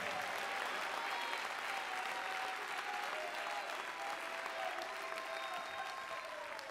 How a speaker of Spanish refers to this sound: Si lo crees, dale el mejor aplauso al Señor en esta hora.